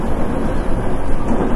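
A Nankai 8300 series train running as an Airport Express from Namba to Rinku Town, arriving at Shin-Imamiya station, giving a steady, loud low rumble with a faint rattling texture that holds even throughout, with no voices.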